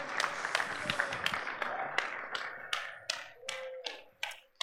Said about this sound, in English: So, go ahead and give her a round of applause as she comes on up.